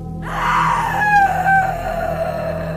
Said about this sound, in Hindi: आधी रात के वक्त जब मैं सो चुका था तो अचानक से किसी की चीख से मेरी नींद खुल गई